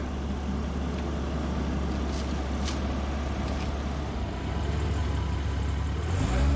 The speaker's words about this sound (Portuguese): o filme terminaria assim. O carro indo embora e pronto, né?